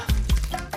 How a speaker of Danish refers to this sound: Det, det er lyden af kort